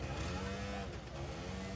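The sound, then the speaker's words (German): Steady low engine rumble of idling cars and motorcycles waiting with their owners outside the Maximilianskirche church for a vehicle blessing, a continuous droning hum with faint background chatter, moderately loud throughout. “Vor der Maximilianskirche warten mittlerweile Fahrräder, Motorräder und Autos mit ihren Besitzern darauf, dass Pfarrer Schießler sie einzeln segnet”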